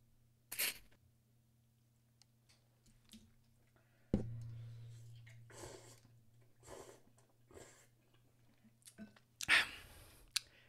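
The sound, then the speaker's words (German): A crunchy big bite of something spicy followed by several seconds of wet chewing, with irregular crackly bursts and soft squishing sounds, no talking, under a steady low hum. “Nehm ich nehme nochmal einen großen Biss.”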